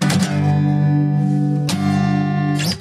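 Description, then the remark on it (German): A voice sings an imitation of an electric guitar solo, holding a loud, buzzy, sustained note broken by a few sharp consonant-like attacks, with no other sounds. “ein, ein gesungenes Gitarrensolo.”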